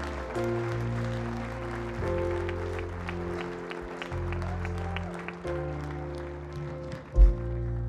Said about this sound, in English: Come on, give a big hand clap.